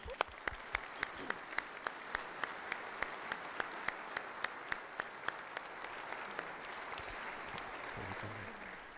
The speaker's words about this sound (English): And give them a round of applause, would you?